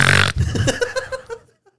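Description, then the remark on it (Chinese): A voice imitates loud snoring: a harsh, raspy snort opens, then a quick run of throaty, buzzing pulses that grow fainter and trail off into silence. “对，而且他们打呼声就不是不是像这样，没有那么单纯”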